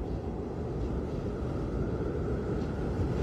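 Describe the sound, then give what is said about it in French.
A steady, low rumbling roar of storm wind around a cabin, with the storm at its height at sunrise on a Thursday morning. It is continuous and fairly loud for the whole stretch, with no voices and no clear breaks or gusts standing out. “Quand le soleil se lève pour de bon jeudi matin, la tempête bat son plein.”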